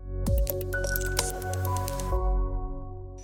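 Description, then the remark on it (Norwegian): Water is poured into a glass, with a splashy gurgle and a few clinks at the start. The pour runs steadily for a couple of seconds, then stops. “Du ville ha vann, men ikke kaffe.”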